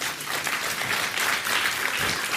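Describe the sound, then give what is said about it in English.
An audience breaks into steady applause, a dense wash of many hands clapping at an even, fairly loud level for a couple of seconds, with no voices standing out. “the clapping there, I, I think I understand what's behind it because you, you, want, you want truth to be told in our culture, but you know who you should clap for? Our teenagers and our young adults.”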